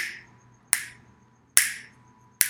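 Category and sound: human body sound, finger snapping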